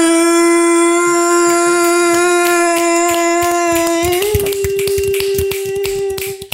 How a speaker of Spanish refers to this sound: Ajá, bueno, ahí estamos aplaudiendo para que la gente que no tenga brazos escuche los dedos.